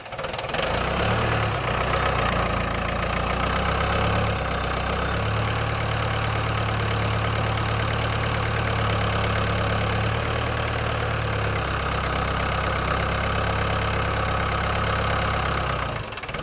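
An Everun wheel loader, a so-called China loader, idles its diesel engine steadily for the whole clip, a deep, even rumble with a faint knocking pulse and a constant mechanical hum above it. No voices are heard.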